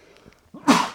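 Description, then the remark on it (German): A single loud sneeze: a short intake of breath followed by a sharp, explosive burst after a moment of near silence, with no talking. “Gesundheit. Dankeschön.”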